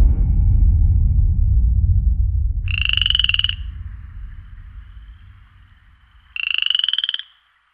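Two loud, buzzing frog croaks, each lasting under a second and spaced a few seconds apart, ring out over a low rumbling background that fades away.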